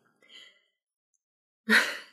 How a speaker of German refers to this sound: Ob der Hund hier eventuell mal leiser schnarchen könnte?